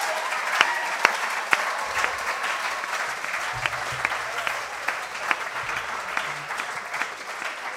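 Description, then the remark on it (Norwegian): An audience applauds steadily, a dense wash of many hands clapping with a few sharper individual claps standing out, holding at an even, moderately loud level throughout with no voices. “En applaus.”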